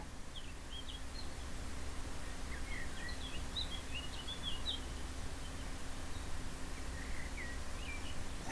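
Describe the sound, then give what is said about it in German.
Faint birds chirp and twitter in a forest, scattered short calls throughout, over a steady low rumble of wind-like background noise. No one speaks. “Und vor allem kannst du Vögel zwitschern hören.”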